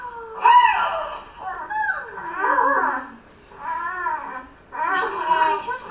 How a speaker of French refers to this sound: Et ici on a une situation un peu plus, plus interactive. Là aussi, donc, le bébé a 3 mois, il fait déjà des sons euh, modulés.